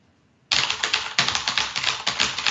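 Rapid, loud clacking of keys on a mechanical keyboard, a dense rhythmic stream of sharp clicks starting abruptly after a brief quiet moment, with no voices.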